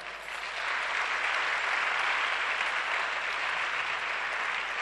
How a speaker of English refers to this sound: I think they deserve a hand clap.